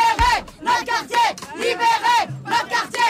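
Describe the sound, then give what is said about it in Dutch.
A crowd of protesters in Brussels shouts a rhythmic chant in unison against traffic circulation plans, repeated bursts of loud voices with short pauses between them, like a street demonstration. “hebben het dan natuurlijk over de circulatieplannen en de protesten daartegen.”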